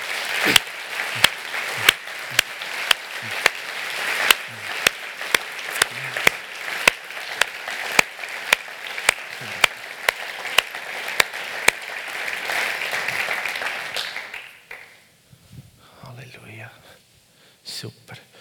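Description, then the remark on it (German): A seated audience breaks into applause for those standing, a dense wash of many hands clapping for about fourteen seconds with sharp individual claps standing out, then fading away into quiet murmuring voices. “Und ich möchte gerne, dass wir alle anderen, die da sitzen, einfach mal die, die stehen, mit einem Applaus ehren, dass sie gegen ihre Scham angegangen sind.”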